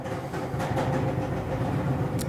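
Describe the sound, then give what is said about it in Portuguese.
A washing machine at the end of its wash cycle runs with a steady rumbling hum and churning, punctuated by a few brief knocks and clatters, with no one speaking. “tá despedida longa ainda da máquina do Cadu. Vocês estão ouvindo aí”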